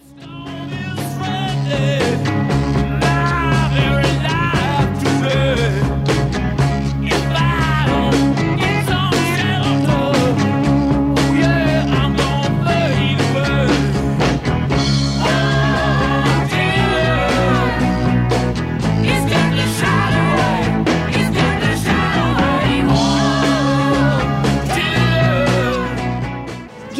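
A late-1960s rock song plays loud and steady throughout, with driving guitars, a strong bass line and wailing vocal lines riding over a dense, full band mix.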